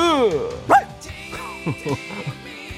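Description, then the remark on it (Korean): A person imitates a dog with a few short, sharp barking yelps in quick succession, fairly loud, set against an ongoing voice in the background. “아, 왜 자꾸 짖어요?”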